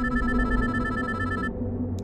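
A mobile phone with its SIM card removed rings: the ringtone chimes steadily with sustained tonal notes over a low background rumble, cutting off abruptly partway through, leaving only the dull hum behind.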